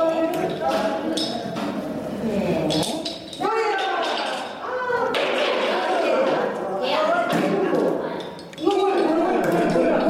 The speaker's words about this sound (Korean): 이거 무슨 소리였습니까? 여가실이라고 해가지고요. 주로 이제 할머니분들이 나이 든 여, 자 나이 드신 분들이 이제 윷놀이 하는 모습입니다. 윷놀이. 예. 아 그래서 이렇게 던지는 네. 소리가 네, 나군요. 네, 윷놀이를 뭐 한 두어 팀이 이렇게 하시더라고요.